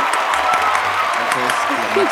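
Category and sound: crowd, applause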